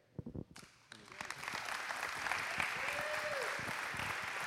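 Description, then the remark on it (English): An audience breaks into sustained clapping, a dense, steady wash of many hands that swells after a few scattered early claps and holds at full loudness to the end. “All right, we want to dismiss our kids so you can keep clapping.”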